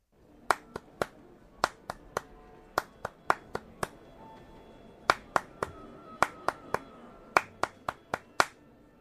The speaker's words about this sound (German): Jetzt hat dritte Runde. Jetzt wird's noch schwieriger. Achtung, hier ist der dritte Klatschrhythmus.